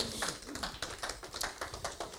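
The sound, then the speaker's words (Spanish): An audience claps together for God in a steady, fairly loud rhythm, the sharp slaps repeating every fraction of a second with no voices on top. “Y el pueblo de Dios dice, tome su lugar, dale un aplauso a Dios fuerte, amén.”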